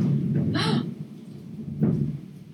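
A low, muffled rumble of thunder rolls steadily for a couple of seconds, with a short breathy hiss partway through and no talking.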